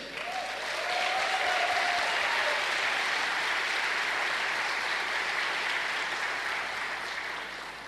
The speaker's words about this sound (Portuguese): As mulheres tinham um papel importante na liderança. Um aplauso para as mulheres.